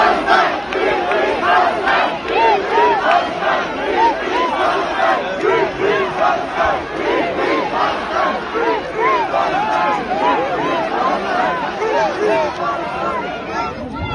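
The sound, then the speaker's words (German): A large protest crowd chants in unison outdoors on Potsdamer Platz in Berlin, many voices rising and falling in a steady rhythmic pattern at a loud, even level. “Allein diese Massen, die da zusammenkommen, sind relativ beeindruckend. Das hier ist der Potsdamer Platz vor ungefähr anderthalb Stunden.”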